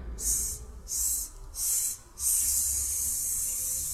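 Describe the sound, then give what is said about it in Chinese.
Someone makes a breathy hissing "sss" as breath passes through relaxed, loosely closed lips and teeth: three short bursts in a row, then one long, steady hiss that keeps going, bright and airy, with no talking. “就是我们的 嗯 唇齿，唇齿发的这个嘶。”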